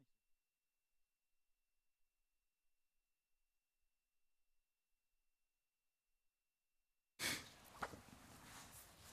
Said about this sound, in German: jetzt muss ich mir die Nase putzen, weil sonst wird das...